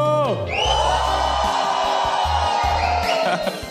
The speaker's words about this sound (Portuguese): E eu quero ouvir a galera fazendo barulho!